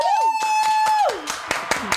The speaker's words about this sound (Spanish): Con eso terminamos. Pues Muchísimas pues gracias. terminamos. Aplausos.